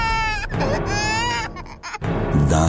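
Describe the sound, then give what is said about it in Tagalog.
An infant wails in loud, strained bursts with high harmonic cries, a brief catch of breath near the middle, then the crying resumes, intense. “Natakot ako, Sir Jupiter, nang makarinig ako ng iba't ibang uri ng uha. Mga iyak ng sanggol, kumalat at umalingaw-ngaw sa loob ng silid ng kwarto ni nanay.”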